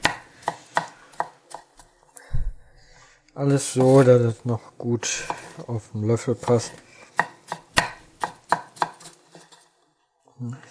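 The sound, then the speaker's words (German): A knife dices about six small pickled gherkins, a little larger than cornichons, into cubes on a cutting board. It gives a steady run of sharp, crisp taps that pause briefly while a person speaks, then resume at a quick, even pace. “Auch in Würfel schneiden.”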